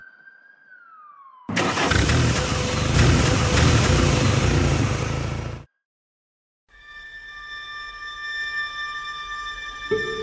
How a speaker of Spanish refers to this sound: Mataron a mi hermano. Se lleva su cuerpo en esa ambulancia.